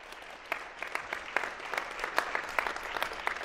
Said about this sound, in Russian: Они достойны громких аплодисментов.